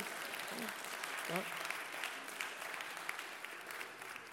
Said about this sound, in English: What you want to do? You want you want to clap? Well, clap then.